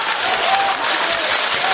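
Audience applause: a steady, dense wash of many hands clapping at once, bright and hissy, holding at an even loudness for the whole stretch with no voices standing out.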